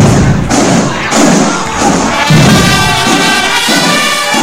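Heavy marching footsteps thud in a steady, even rhythm, about two per second, loud and low-pitched, with a faint crowd murmur underneath and no talking.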